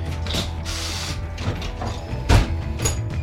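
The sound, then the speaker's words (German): A bus door's hydraulics opening at a stop in Treppendorf: bursts of air hiss mixed with clunking, ratcheting mechanical noise, and a heavier thump partway through. No one speaks. “Und dann geht das ist ja die Hydraulik, oder? Auf.”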